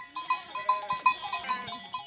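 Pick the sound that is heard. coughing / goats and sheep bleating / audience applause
goats and sheep bleating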